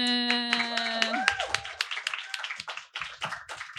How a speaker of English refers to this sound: Lots of applause for Darcy Lockman.